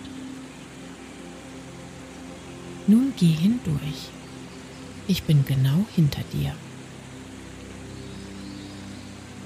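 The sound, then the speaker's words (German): A rushing waterfall in dense jungle pours down a hillside with a steady, dense roar that fills the whole clip, while a person speaks two short phrases over it midway through. “Kannst du das Rauschen des Wasserfalls schon hören?”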